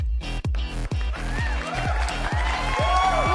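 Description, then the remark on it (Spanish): A loud audience cheers and applauds continuously, with high whoops and shrill calls rising over dense clapping and a rhythmic low thumping underneath. “Muchas gracias por los gritos y los aplausos.”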